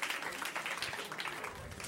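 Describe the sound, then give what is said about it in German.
A burst of applause: many hands clapping at once in a dense, steady crackle that stays fairly loud for about two seconds, with no voices standing out. “Also, genau, und das verdient Applaus, zu Recht, weil das ist genial.”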